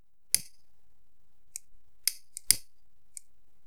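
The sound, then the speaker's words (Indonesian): A cigarette being lit: a handful of sharp, crisp lighter clicks at uneven intervals, two of them heavier strikes with a brief rasp, heard alone with no talking. “Tapi sebelum gue memulai ceritanya, mari kita nyalakan dulu sebatang rokok biar kita rileks.”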